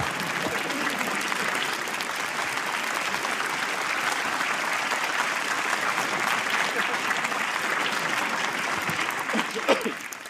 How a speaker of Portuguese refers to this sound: Eu vou pedir um enorme aplauso para os joelhos deles. Uma salva de palmas para os joelhos deles.